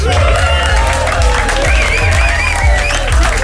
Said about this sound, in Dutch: applaus.